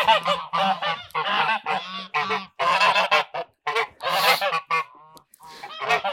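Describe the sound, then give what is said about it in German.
Geese honk loudly and repeatedly, a dense run of harsh, nasal calls tumbling over one another for about six seconds, with only brief gaps and no talking. “Ja, quack, quack, quack, quack. Gut, sie zwicken.”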